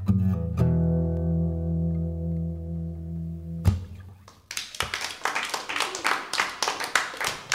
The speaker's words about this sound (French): pour terminer cette intimité live avec euh, …, duo qu'on peut applaudir bien fort.